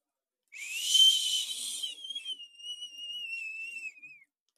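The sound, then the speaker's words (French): A man imitates the wind while holding a woman by the shoulders and swaying gently, starting with a breathy, hissing rush over a high whistle, then a thin wavering whistle that slides slowly downward and fades out, heard alone at moderate volume. “Lui fait le bruit du vent.”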